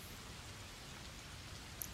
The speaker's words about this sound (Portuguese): Deveria ser alguma daquelas chuvas de verão que ficam presentes por dias sem parar.